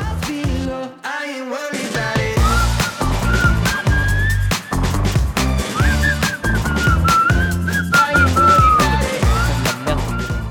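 An upbeat pop track plays loudly, a bright whistled melody gliding over punchy drums and a steady bass beat, with no one talking over it.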